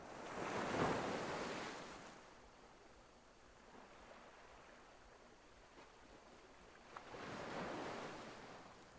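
Waves roll onto a beach in two broad surges, one early and one near the end, each swelling into a hissing wash and then easing back into a soft, steady background rush.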